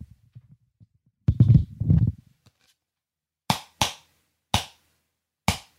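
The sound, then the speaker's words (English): Four sharp, hollow thwacks of a cardboard wrapping paper tube used as a sword striking something, spaced irregularly, each with a short ringing decay, after a few seconds of low muffled rustling and handling. “This is a wrapping paper sword. What sound does the wrapping paper sword make?”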